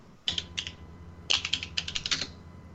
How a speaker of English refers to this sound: I hear typing. Somebody's taking notes.